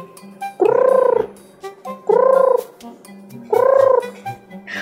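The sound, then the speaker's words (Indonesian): A storyteller's voice imitates a pigeon cooing: three loud, throaty coos spaced evenly about a second and a half apart, each swelling and fading, with only a faint background hum between them. “Gimana ayo bunyinya burung merpati?”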